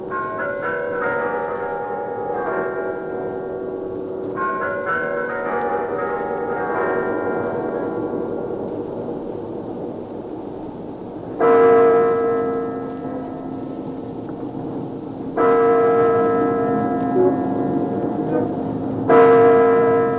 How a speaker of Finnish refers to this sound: Itäisen naapurimaan pääkaupungista Moskovasta saattoivat radiokuuntelijat hieman yli tunti sitten kuulla Kremlin vuosisataisten kellojen sävelmän. Ne kaikuivat juhlallisina valaistusta tornista, punaisten rubiinitähtien hehkuessa yön taivasta vasten.